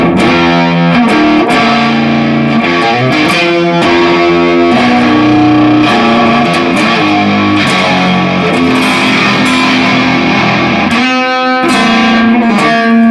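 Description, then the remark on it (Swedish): A heavily distorted electric guitar plays sustained, gritty chords and riffs through an overdriven tube amp, thick and saturated with a buzzing edge, filling the whole stretch with no talking. “Men om vi tänker oss att du har det här distade ljudet, vi säger så här.”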